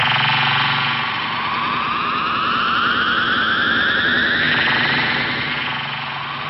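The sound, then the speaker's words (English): An alien spaceship departing for another dimension with its doors closed: a loud, steady engine roar with a whining tone that sweeps steadily upward over several seconds, heard alone with no voices. “There goes the ship.”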